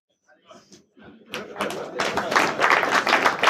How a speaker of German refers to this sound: Hier können wir es einmal zeigen. Ja, Applaus, danke.